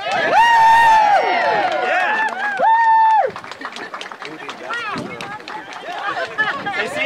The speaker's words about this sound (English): You can cheer for us.